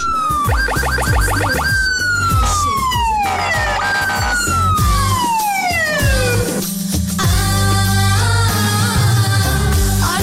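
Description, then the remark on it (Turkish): An emergency vehicle siren sound effect wails loudly with repeated falling and rising sweeps, layered over a rhythmic musical backing with thumping low beats, filling the whole stretch without pause. “Emniyet şeridi için bir siren alabilir miyiz?”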